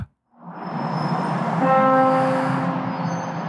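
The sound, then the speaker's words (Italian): A London Underground train rumbles steadily through Embankment station, loud, with a high metallic whine and tonal screech rising midway as it passes. No one speaks. “Regala la copia registrata alla donna e ripristina l'annuncio originale nella stazione di Embankment.”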